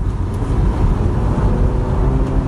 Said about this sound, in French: Voilà, le bruit du moteur, ça ils le font bien.